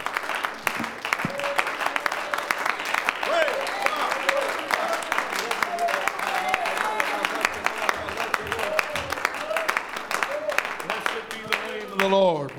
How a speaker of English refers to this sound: would you give the Lord a good hand clap of praise right now?